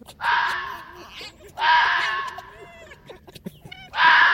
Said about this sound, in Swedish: Hittar du någon rävskäll så vore det kul för jag tror faktiskt aldrig jag hört en räv skälla